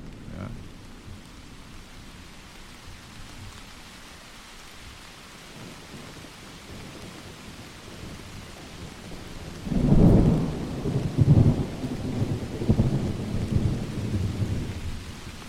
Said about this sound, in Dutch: En aan het eind hoor je ook echt een onweersbui. Zal ik die nog eventjes uh, er doorheen gooien? Doe even de onweersbui, ja.